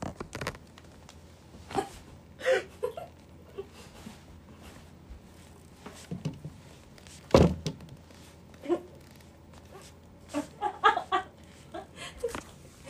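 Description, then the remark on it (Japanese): Irregular creaks and sharp cracks of a person's spine during a back massage while they lie face down, scattered over several seconds, with a few short strained grunts and groans between them. “背骨がきしむ音を ASMR でお楽しみください”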